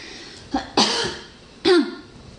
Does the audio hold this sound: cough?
yes